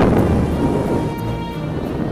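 A steady, loud roar of rushing wind, heavy in the low end with a rumbling, turbulent texture that holds for about two seconds without letting up. No voices are heard. It is the wolf blowing as hard as he can at the third little pig's brick house.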